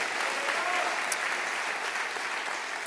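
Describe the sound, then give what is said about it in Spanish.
A church audience applauds the Lord steadily, a dense wash of clapping from many hands that holds at an even level for a few seconds, with no voices standing out. “Déselo fuerte al Señor, recibe esta palabra.”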